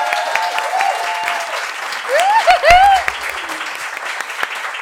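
A live audience at the bar Ascenso gives steady applause, a dense crackle of many hands clapping, with a few high whistles and cheers rising over it in the middle before the clapping carries on.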